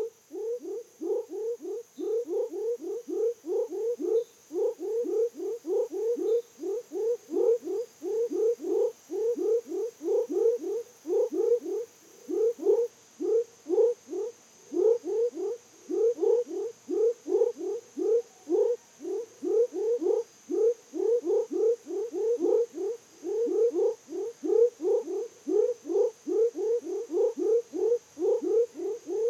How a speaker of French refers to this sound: Et donc là, c'est la grenouille de Savage que j'ai enregistrée près d'un village, à proximité d'un cours d'eau. Et donc c'est un chant discret, mais très très mélodieux, vraiment très chouette.